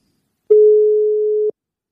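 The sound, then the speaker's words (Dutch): One steady telephone ringback tone, a clear mid-pitched hum lasting about a second, heard alone against silence with no voices. “Oké, gaan we toch eventjes bellen”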